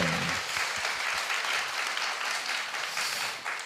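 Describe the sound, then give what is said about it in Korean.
Steady studio audience applause on a Korean talk show welcoming a golf school principal as guest: a dense, continuous patter of many hands clapping at a fairly loud level for a few seconds, with no voices over it. “박수!”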